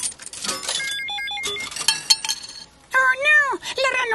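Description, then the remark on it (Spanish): Several bright metallic clinks as Elmo drops four 25-cent coins one after another into the slot of a photo machine, ringing briefly, followed by a short sweeping, voice-like sound near the end. “Oh, ahora Elmo pondrá cuatro monedas de 25 en esta ranura.”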